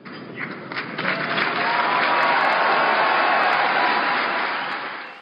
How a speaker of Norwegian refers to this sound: Applausen runget i FNs hovedforsamling da det ble klart at et solid flertall oppgraderte palestinernes status i FN til observatørstat uten stemmerett.